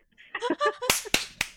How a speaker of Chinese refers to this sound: 忍不住拍手了。